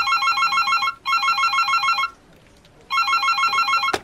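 A telephone rings in two long electronic trilling bursts separated by a short pause, then a third burst begins before a sharp click cuts it off. No one speaks.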